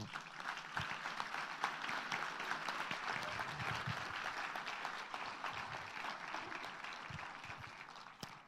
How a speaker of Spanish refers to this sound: ¡Wow! Quiero aplaudir, el Señor se pasó.